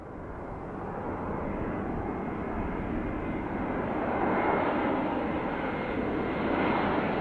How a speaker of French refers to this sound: alors le premier son, un avion, euh, j'ai la chance de voyager euh, beaucoup, euh, d'aimer beaucoup ça